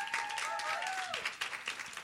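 A church audience at a morning service claps steadily in a dense burst of applause for a woman called to the front, with a few voices calling out over it and a brief whistled or sung tone sliding down early on.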